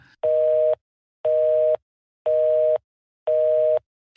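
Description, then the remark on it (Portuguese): A telephone busy signal after a man hangs up on a woman mid-call: four steady, evenly spaced electronic beeps, each about half a second long with equal silences between, clear with no voices. “E desligou na cara dela.”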